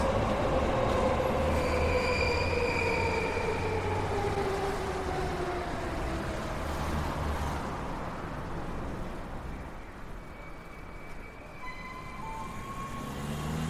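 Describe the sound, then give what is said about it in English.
A train passes overhead on elevated tracks above a walkway under a building in Shibuya, its steady heavy roar carrying high metallic wheel squeals that slide and whine throughout, with no one speaking. “But here, back in Shibuya, we're walking under the building, under the train tracks we can hear overhead.”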